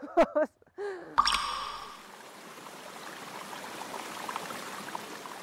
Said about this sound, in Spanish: El correr del agua